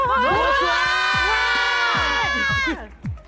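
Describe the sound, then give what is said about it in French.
A live audience shouts and cheers together in one loud, sustained roar of many voices, holding for nearly three seconds before breaking off into a few scattered trailing yells. “vous devez crier avec moi.”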